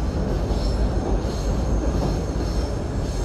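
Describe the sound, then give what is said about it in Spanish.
A subte (subway) train rolls along the tracks toward Pueyrredón station with a steady, loud rumble, overlaid by a thin high-pitched metallic whine from the wheels. No one speaks. “que mi amigo no sabe tanto cómo andar en subte.”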